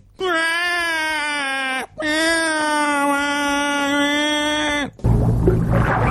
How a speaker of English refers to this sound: Now I could almost see that. The dolphin was actually trying to say that, I... but it's a you know it's a dolphin.